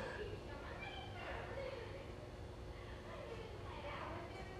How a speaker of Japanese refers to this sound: こういう形で子供たちの声が聞こえるんですよ はい、えー、女子ですね女子の中学生かな こんな感じでね、あの声が聞こえてきます。